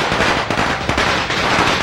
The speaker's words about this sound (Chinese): 哇！整个村子回荡的巨大的鞭炮声，噼里啪啦，噼里啪啦，噼里啪啦。